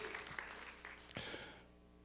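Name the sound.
audience applauding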